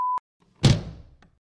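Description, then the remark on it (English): A short electronic beep, then after a pause a single loud door slam as someone walks out: a heavy thud with a quick rattling decay and a faint click as it settles. No voices. “Okay, so now he's gone and walked out the door, hey?”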